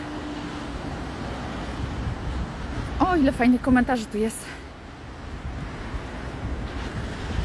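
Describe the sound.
Steady roar of ocean surf washing onto the shore, mixed with wind rumble, continuing throughout while a person briefly talks over it in the middle.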